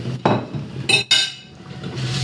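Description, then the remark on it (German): Metal pots and utensils clatter while vegetables and chicken are fried in a wok, with a low thump followed by two bright, ringing clanks, then a quieter background rumble. No one speaks. “Dann schmeißen wir das Gemüse in den Wok mit dem Fleisch und brutzeln das alles schön an und dann kommt noch ein bisschen Gewürze dazu.”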